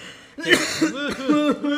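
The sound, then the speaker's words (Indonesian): A person lets out a quick run of four or five voiced, theatrical coughs, fairly loud, with a laughing, put-on quality as if imitating a cough. “batuk batuk batuk Eko batuk Eko batuk”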